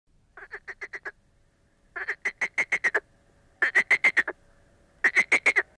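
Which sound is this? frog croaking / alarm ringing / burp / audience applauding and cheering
frog croaking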